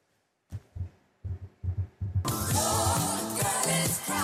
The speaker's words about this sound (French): Pour vous détendre, pour finir cette heure d'information, euh, j'ai envie de vous mettre un petit peu de musique. Écoutez.